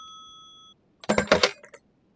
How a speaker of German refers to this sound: Ich glaube, das Telefon klingelt. Seit wann habe ich denn ein Telefon hier?